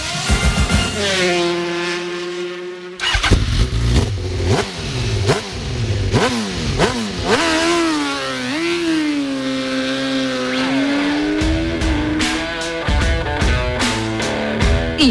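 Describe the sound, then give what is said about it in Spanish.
Motorcycle engines rev loudly, their pitch repeatedly climbing and dropping in overlapping sweeps, with a brief sustained drone at the start and continuous roaring throughout. “motos.”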